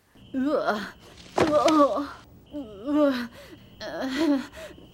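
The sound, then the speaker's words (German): A rapid string of voiced gasps, groans and disgusted vocal noises, several short bursts edited back to back with sharp gasping breaths between them, fairly loud, no words. “Ich habe übrigens ein bisschen rumgespielt und äh, habe einfach ihren Ekel mal zusammengeschnitten.”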